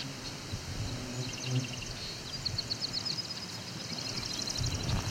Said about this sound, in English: That Wichita, Wichita call is the common yellowthroat.